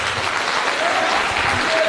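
Steady applause from a church gathering for a guest speaker, a dense, even wash of many hands clapping at once with no pauses, loud and sustained throughout.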